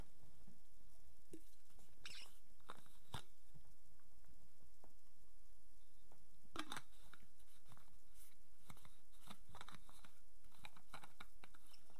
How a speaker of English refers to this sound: Joe and the doctor run along the corridor to discover Arcturus with a panel in his life support box open.